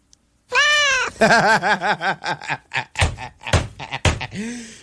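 A cat meows loudly, starting with one long drawn-out meow and then a quick run of short, chirpy meows, with a few dull thumps mixed in near the end.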